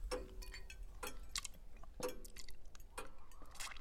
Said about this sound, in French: Et puis le silence est retombé, mis à part le bruit de l'horloge et celui des mâchoires